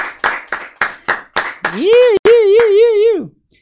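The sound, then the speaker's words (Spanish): About six loud, evenly spaced claps ring out in a steady rhythm as applause for Marley Coffee, then a long wavering vocal whoop carries over a few more scattered claps before stopping. “El aplauso ahí, aguante Marley Coffee, sí que sí.”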